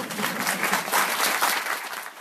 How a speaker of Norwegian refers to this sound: Ansatte i Integreringsdirektoratet klappa etter det første møtet med den ferske statsråden Sylvi Listhaug i går.